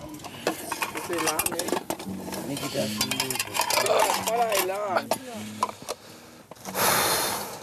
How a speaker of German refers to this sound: Mhm, abwaschen macht voll Spaß.